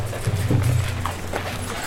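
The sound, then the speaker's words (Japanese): Golden bird-wing ornaments on top of a portable shrine (mikoshi) in a procession clatter in a steady, repeated clip-clop rhythm of light knocks, riding over a low continuous rumble with no talking. “このさあのみこしのさ上にある何金の鳥の羽がさ、うん、カタカタカタってさ、うんこの音がいい感じじゃない”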